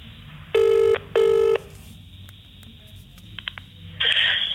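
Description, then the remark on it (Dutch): A phone ringback tone sounds twice in steady, buzzy bursts over a faint line hiss, followed by a few soft clicks and a burst of noise as the call connects, while calling the general phone number of the English branch of a sports management agency. “Dus ik bel het op.”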